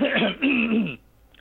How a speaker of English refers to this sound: And it took me a while to Hang on, I'm gonna cough. We can cut this.